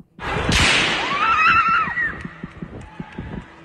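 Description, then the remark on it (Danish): A single loud, sharp rifle shot cracks out, fired by a man around the cinema on the first floor of a shopping centre on Amager on a summer Sunday, its echo decaying while a high, wavering scream rises over it, followed by a series of irregular soft thumps. “Men pludselig afbrydes den stille sommerlige søndagsro af et voldsomt brag.”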